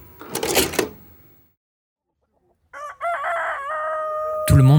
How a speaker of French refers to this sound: connaît le coq gaulois. Cet emblème national, fièrement arboré sur les maillots des sportifs de haut niveau, a pourtant bien failli disparaître de nos campagnes.